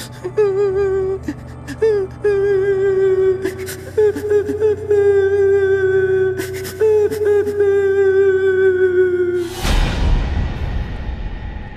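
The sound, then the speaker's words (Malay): A person crying at the staircase of a corridor in Blok Tikwai, in long, wavering, high-pitched wails broken by short sobbing catches, steady and fairly loud for about nine seconds before a sudden rushing whoosh cuts in. “Saya terperasan Dekat tangga koridor Blok Tikwai Rumah kawan saya punya Bekas Isteri ni Saya perasan macam Ada orang tengah Menangis”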